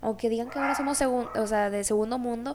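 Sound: dogs barking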